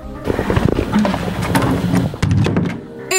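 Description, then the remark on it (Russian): A door is slammed shut by representatives of the tour operator Biblio-Globus in Nizhny Novgorod in front of journalists, with a loud, hollow thud amid a burst of clattering knocks and rattles, followed by a brief tonal sound at the very end. “А когда слышат о том, что люди требуют компенсацию за испорченную поездку, то громко хлопают дверью перед журналистами.”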